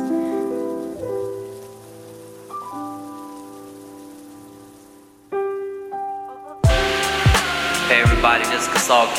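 Heavy rain pours down in a steady, close hiss beneath sustained musical tones, then swells into a louder, denser downpour near the end.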